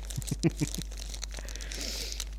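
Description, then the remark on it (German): Board game pieces clatter and rustle inside a crinkly plastic bag, a few sharp knocks at first, then a softer continuous crinkling, fairly quiet. “So klingt übrigens das Spielmaterial, wenn es in einer Tüte verpackt ist.”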